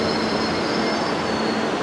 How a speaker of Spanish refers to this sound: Como en las películas, empieza a temblar todo porque ahí llega el tren. Y ahí pasa el tren. Y ahí se va el tren. Y el tren no paró. y sigue sin parar el tren. Y sigue pasando el tren. Y se va de largo el tren.